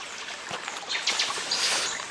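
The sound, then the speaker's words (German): A steady, hissing rush of water falling from a waterfall in a forest somewhere in South America, at 80% humidity, with scattered faint bird chirps and splashy rustles over it; no voices. “Jetzt sind wir hier irgendwo in Südamerika in einem dummen Wald. Der Wasserfall lässt nicht so viel Wasser wie ich gerade.”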